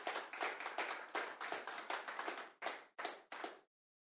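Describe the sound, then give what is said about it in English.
An audience bursts into clapping, a dense, crackling patter of many hands for about three seconds that breaks into a few final separate bursts before falling silent. “Everyone clap because the dad was a dad.”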